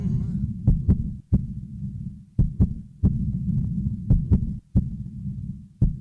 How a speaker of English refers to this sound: What you hear isn't just any beat, it's the actual heartbeat of a child in need.